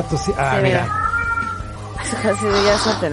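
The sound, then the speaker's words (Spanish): A cat in a broadcast booth lets out two drawn-out, wavering meows, the second one higher and more insistent, over a steady low hum and some background voices. “Ya está en cámara el gatito.”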